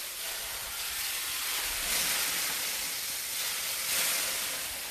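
Water splashed onto a hot sauna stove sends up a steady, bright steam hiss lasting several seconds, swelling louder twice before settling. No voices are heard.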